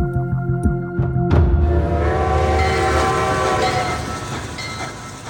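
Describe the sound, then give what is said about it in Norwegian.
A train rolls along the rails with a quick run of rhythmic clacks at first, then a steady, loud rumble, with sustained horn-like tones held throughout. No voices. “Så når han går inn på toget, så håper han at han er i sikkerhet”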